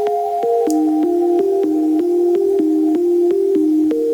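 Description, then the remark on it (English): An upbeat electronic instrumental plays with a steady, evenly spaced beat under sustained, ringing bell-like tones that shift gently in pitch. No voices, moderately loud and continuous. “So you can hear all the all the bells in the background, don't you?”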